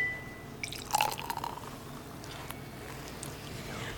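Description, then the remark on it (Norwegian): Soft fizzing and tiny crackling pops from a carbonated drink in a glass, fairly quiet, with a brief clink and a faint pour near the start. “Det var lyden av litt uh, Eh, eh, sprudlende i glasset.”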